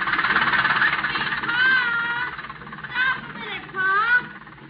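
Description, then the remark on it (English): A steady, rumbling tractor engine drone runs throughout, fairly loud, with a few rising and falling whining tones surging over it as a farmer in overalls mows his fields on his farm. “Seated on his tractor, John Landis is mowing his fields”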